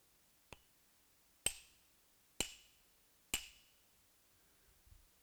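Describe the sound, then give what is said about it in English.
A hammer strikes a nail: one light tap, then three heavy, evenly paced blows, each with a bright metallic ring that quickly fades. Clear, with no voices. “That's the sound of my sin and your sin being nailed to the cross.”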